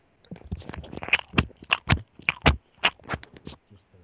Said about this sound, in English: Hang and, on, um, pause, pause for one second. Finish chewing.